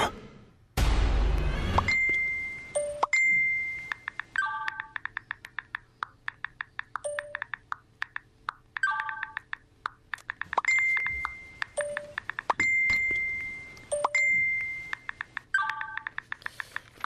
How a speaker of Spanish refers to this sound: Bueno, hace un año estamos escuchando, em, obviamente, el sonido de WhatsApp, ¿no?